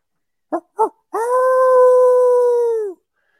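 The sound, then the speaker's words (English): A coyote howler call gives two quick barking yips, then one long, steady howl that holds its pitch before dipping and cutting off. “If I'm if I have nothing going and it's still gray light, it's still dark, you know, it's still pitch black dark, I'm going to be hammering the coyote howler.”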